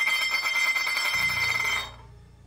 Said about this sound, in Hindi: Rocky आराम से लेटा सो रहा था कि तभी उसे बर्तन गिरने की आवाज आई